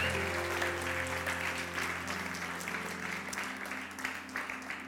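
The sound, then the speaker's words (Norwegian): A crowd in Porsgrunn applauds steadily with dense, sustained clapping that stays loud throughout, while a low, steady tonal hum sits underneath. “Skal vi gi dem en skikkelig applaus, eller?”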